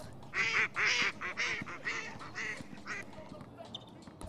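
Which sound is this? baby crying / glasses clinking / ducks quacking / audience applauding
ducks quacking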